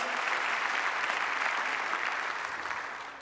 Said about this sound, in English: If you believe that, clap your hands for Jesus.